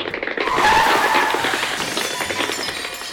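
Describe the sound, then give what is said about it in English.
A car swerves and hits garbage cans on a street in Pflugerville, with a loud tire screech that rises sharply and holds for about three seconds, a harsh, rushing squeal with no voices. “Apparently, when you cross the street, cars swerve and hit garbage cans.”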